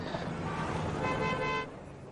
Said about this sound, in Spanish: Varios coches y motos siguen al camión de bomberos.